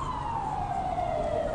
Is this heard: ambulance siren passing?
yes